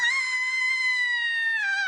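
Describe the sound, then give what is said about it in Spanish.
A person imitates Ned Flanders' shrill, sustained scream, a single continuous high-pitched wail that holds steady for almost two seconds before dipping slightly at the end, loud and alone without other talk. “una nave que nos hizo gritar a todos como niñas”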